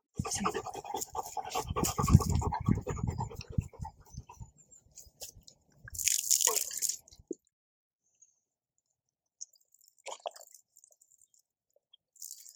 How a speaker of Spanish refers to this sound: Y procedemos a echarle el agua, ¿vale? Lo ideal, de atrás hacia adelante, para que salga el agua hacia afuera.